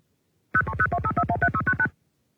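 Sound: telephone number being dialed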